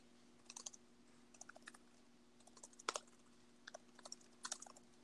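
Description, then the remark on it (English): Irregular bursts of computer keyboard typing, with quick clusters of soft key clicks and brief pauses, set against a faint steady electrical hum. No one is speaking. “Sorry if you can hear the typing.”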